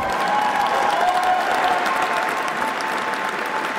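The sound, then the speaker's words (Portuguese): A crowd applauds steadily as João Coutinho Figueiredo, former Liberal leader, stands up to thank them for the support and applause; dense overlapping clapping fills the whole stretch at an even, loud level with a faint murmur of voices beneath. “levanta-se agora o João Coutinho Figueiredo para agradecer o apoio e os aplausos.”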